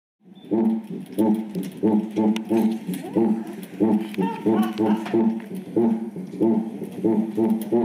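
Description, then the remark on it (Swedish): A chimbomba friction drum, shaped like a big cup with a large straw in it, played in a steady rhythm, giving repeated low, buzzy grunting tones like a monotone cow, fairly loud with no talking over it. “Men det är i alla fall en Chimbomba och jag tycker faktiskt att det ser lite ekivokt ut när de spelar på den här också.”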